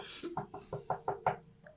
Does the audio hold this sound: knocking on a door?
yes